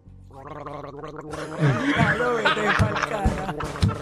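Jacuzzi water bubbling and gurgling, a steady churning burble that swells louder partway through, with wet, gargle-like pops and a faint tonal hum running underneath.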